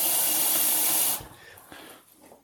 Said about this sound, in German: ich mache nebenher meine Kaffeemaschine voll und nehme einfach alle Geräusche für euch auf.